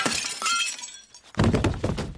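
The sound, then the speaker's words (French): Crockery smashes in an inn's dining hall in a loud, bright crash with scattering shards, falls briefly quiet, then a second heavier burst of clattering breakage with a low thud follows. No one speaks. “Mais à peine l'aubergiste avait-il posé les assiettes et les chopes sur la table qu'un bruit de vaisselle cassée attira l'attention de toute la salle.”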